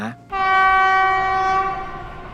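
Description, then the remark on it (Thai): A passenger train heading north sounds a long, loud, steady horn blast that starts abruptly after a brief rumble and holds, fading only slightly toward the end. “กำลังนั่งรถไฟมุ่งไปที่ไหนสักที่ทางเหนือ”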